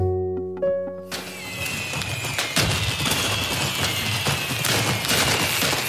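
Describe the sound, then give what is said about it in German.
New Year's Eve fireworks and firecrackers burst in a dense, crackling barrage, with repeated sharp bangs over a constant fizzing roar; a brief tonal hum fades out just before the explosions begin. “Gewöhnen Sie sich schon mal an dieses Geräusch. Übermorgen ist Silvester und es könnte wieder wie immer klingen.”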